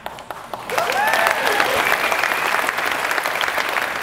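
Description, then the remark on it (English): After a brief quiet moment, an audience breaks into loud, steady applause that keeps going without letting up, with a few cheering voices rising briefly over the clapping. “Don't clap yet.”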